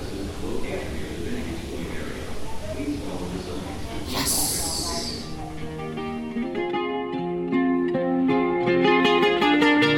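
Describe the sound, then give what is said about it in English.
An airport people mover rumbles steadily, then a sharp burst of air hiss is followed by a rising, stepped electric whine as the train pulls away, with faint voices in the background. “Guys, the plane train was working.”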